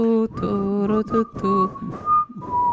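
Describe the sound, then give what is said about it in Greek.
A short movie tune whistled by mouth, a few sustained, wavering notes in a tune-like phrase, clear, with a low hum of voices or vocalizing underneath. “αρχίζει και σφυρίζει. Να, κάνουμε, να το κάνουμε με το στόμα, να κάνουμε αυτού.”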